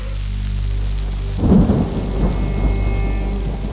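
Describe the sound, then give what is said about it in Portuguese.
Steady rain at night hisses continuously while a deep rumble of thunder swells up partway through and lingers under the downpour. No voices are present. “Porque é de noite e tá chovendo.”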